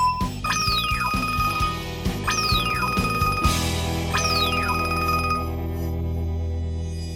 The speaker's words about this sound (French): Elle entend bien la sonnerie de l'alerte au top, mais elle n'a pas très envie d'aller le chercher.